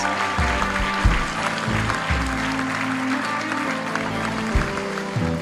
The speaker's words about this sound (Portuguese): Mais palmas, gente, mais palmas. Muito bom, muito bom.